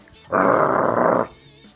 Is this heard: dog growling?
yes